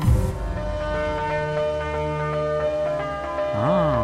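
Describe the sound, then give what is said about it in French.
A sustained keyboard motif rings out in layered, bell-like chords that hold steady and fill the mix, with a swooping pitch glide near the end, in the outro of a live version of a song. No voices are heard. “Et là, le motif, il est rodé, on va dire, de la même façon avec le, même clavier.”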